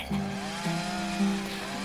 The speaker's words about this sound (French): On entendait au loin les tronçonneuses des bûcherons.